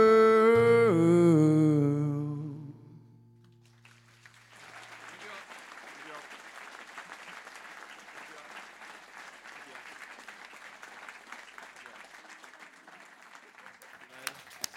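An audience gives a sustained, steady round of clapping for the singer after the final ringing notes of a song, the applause holding evenly at moderate loudness for about ten seconds.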